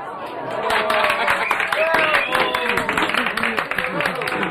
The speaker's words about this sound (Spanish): ¿Ves? Ellos te aplauden.